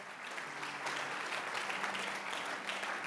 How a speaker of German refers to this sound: Und die ganze Ekklesia sagt, komm, lass uns Jesu mal einen Applaus geben. Er ist gut. Er ist treu.